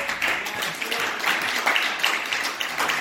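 A church audience applauds the children as they go forth, a steady wash of many hands clapping at once in a dense, continuous patter that holds for the full few seconds without a clear rhythm.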